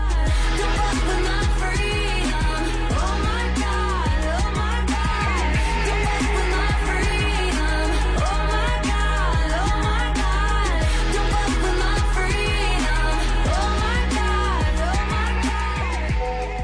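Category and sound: pop song playing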